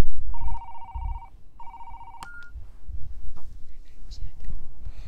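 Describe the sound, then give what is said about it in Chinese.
A telephone rings in two trilling, steady-pitched bursts as a call is placed to a grandmother, followed by a sharp click, then quiet low background rumble with faint scattered noises. “他像往常一样打电话给奶奶。”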